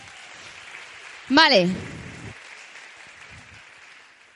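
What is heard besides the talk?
audience applause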